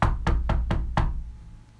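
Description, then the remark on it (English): Five firm knocks on a door in a quick, steady rhythm, the last one landing a beat later, followed by a brief quiet tail. Clear, with no voices. “Knock, and the door shall be open unto you.”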